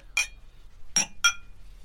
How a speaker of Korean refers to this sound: 아, 자, 건배할까요? 자, 건배. 건배.